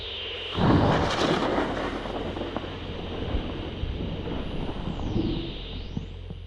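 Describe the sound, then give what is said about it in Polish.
A heavy crack of thunder from lightning repeatedly striking overhead power lines bursts in after a brief hiss, then rolls on as a loud, sustained rumble mixed with wind-like noise, with no voices. “Pioruny uderzają co chwila w trakcję, ale czuję, że teraz będzie coś większego.”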